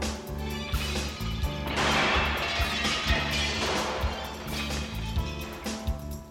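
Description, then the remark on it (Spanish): A gunshot whose bullet passes a detective and shatters the glass door behind him, with a bright, noisy crash that lingers for a couple of seconds over a steady, low, pulsing thump throughout. “La bala pasó cerca del detective, astillando y haciendo pedazo la puerta de cristal a sus espaldas.”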